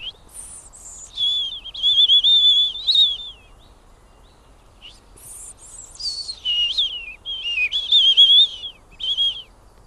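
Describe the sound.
A person whistles an imitation of a European robin's song in two phrases: high, thin trills and sliding notes with a brief pause between them, clear with no talking.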